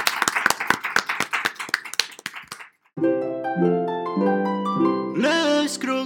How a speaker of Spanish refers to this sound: Estoy aplaudiendo yo porque sí soy.